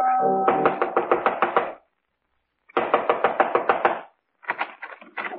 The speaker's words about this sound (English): Within 15 minutes, I was knocking on his front door.